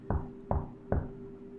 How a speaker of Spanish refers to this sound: y escucho cómo golpean tres veces un mueble de madera como si estuvieran tocando la puerta para entrar. Me sacó de onda y me levantó para ver quién tocaba mi puerta, y todos estaban dormidos.